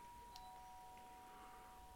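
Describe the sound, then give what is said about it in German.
A doorbell rings with a steady electronic tone held through the whole moment, quiet, with a brief click near the start and no voices. “Ja. ja, bei mir klingelt es. Ich muss mal ganz kurz.”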